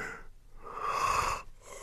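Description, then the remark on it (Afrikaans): A voice imitates a leopard's yawn: a single drawn-out, breathy exhale that swells in the middle and trails off, fairly soft, with no words spoken. “Hy eind verder, probeer 'n luiperd ook 'n uiltjie knip. Hy gaap en sê”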